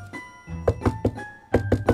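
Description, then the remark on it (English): Two sets of three sharp knocks on a door, each a quick evenly spaced triplet with a short pause between the groups, over soft sustained background music. “Knock knock knock，哦，有人敲门。”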